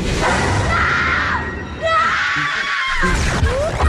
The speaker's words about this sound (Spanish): Esos gritos vienen de la calle, vienen del espejo, vienen del espejo.